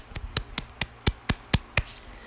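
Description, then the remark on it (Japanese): A single person claps about eight times to celebrate the first public release of a song. The claps come in a steady, fairly quick rhythm, each one sharp and crisp, with the last clap trailing off. There is no talking. “本日はですね「… を」を、えー、初めて一般公開しました拍手”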